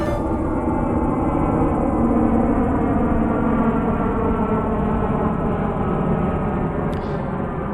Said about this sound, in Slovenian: Pozdravljeni ob spremljanju nove epizode Radio Vednih, v kateri smo se tokrat znašli med hrupom letališča. Kar nekako smo pozabili, kakšen je zvok potniških letal, zdaj ko so potovanja že skoraj dve leti močno omejena.